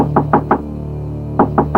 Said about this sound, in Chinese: 过了没多久，持续的敲门声再次响起。